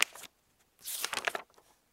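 Paper rustling as a book is opened: a short crinkly burst, a pause, then a longer dry flurry of crackling page sounds that fades out, with no voices.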